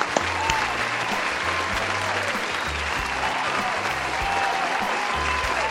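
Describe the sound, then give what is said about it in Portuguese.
Steady audience applause, a dense wash of many hands clapping at an even, sustained level for several seconds, with a faint murmur of voices and low rhythmic music underneath. “Vamos bater palma pro Shawn.”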